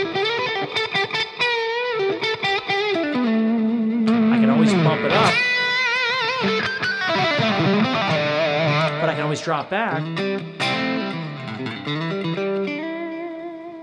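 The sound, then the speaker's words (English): An electric guitar with delay and reverb plays bending, sustained notes with echoing tails, heard alongside a man talking over it. “So it's not just about how many pedals I'm using, I'm, I'm just using this tone that's got a little delay and a little reverb, and I can get all the rest of this from that.”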